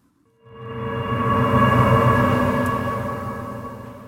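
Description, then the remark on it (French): A resonant metallic hammer strike with its attack cut off using volume control, so the ringing tone swells in gently from nothing, holds rich and steady, then slowly fades, like a wave. “Dans le tutoriel, on voit comment le contrôle du volume nous permet de transformer ce son-là en le coupant de son attaque.”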